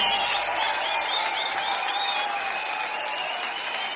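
An audience applauds steadily, a dense wash of many hands clapping at an even, sustained loudness for the whole stretch, with no voices breaking through.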